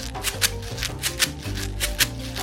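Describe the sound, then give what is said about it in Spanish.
A homemade maraca made from a bottle filled with seeds or grains, shaken in a steady rhythm, its seeds rattling in crisp bursts roughly twice a second over soft background music, with no one speaking. “la travesía inspiradora siguió con la fabricación de nuestras propias maracas caseras”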